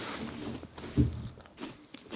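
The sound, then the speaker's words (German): Moist chewing and lip-smacking with soft crunchy bites, one stronger bite near the middle, no voices, just mouth noises. “100 Hörer mit, mit äh, Schmatzen.”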